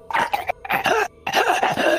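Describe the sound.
A rattling, gurgling breath voiced in several harsh, throaty bursts over two seconds, with brief gaps between them, like someone imitating a wet, labored death rattle, heard by a character halfway up a ship's rigging in a role-playing game.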